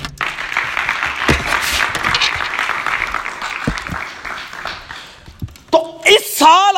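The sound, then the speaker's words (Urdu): An audience breaks into sustained applause for God, dense crackling clapping for about five seconds. Near the end, voices rise over it with loud, pitched shouts and cheers. “آئیے اس کے لیے تالیاں بجائیں”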